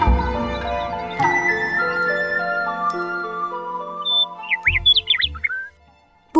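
A nightingale calls in a burst of quick, high, twisting whistles near the end, following a sharp hit and a stretch of sustained, ringing musical tones.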